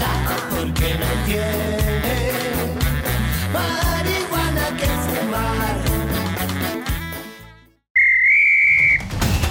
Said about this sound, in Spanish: Este ha sonado el pitazo final de este podcast.